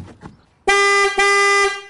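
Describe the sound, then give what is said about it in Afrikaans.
A Corsa car's horn blares loudly in two sustained honks, the first about half a second long and the second slightly longer, after a brief gap. Faint low rumble precedes it. “Dit soms so moet dit toetermos klink.”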